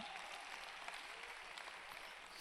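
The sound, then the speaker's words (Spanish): An audience applauds steadily, a dense, even wash of many hands clapping at once with no pauses, holding at a constant loudness throughout. “Yo aplaudiría más fuerte.”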